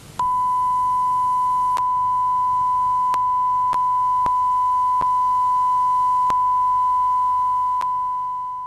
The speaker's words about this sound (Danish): Og man kan ligesom sige, at den anden side af solsorten, alting har jo en anden side, det er hyldetonen, ikke? som gør ondt i ørerne, hvor livet er sat på pause, hvor der ikke sker noget mere overhovedet.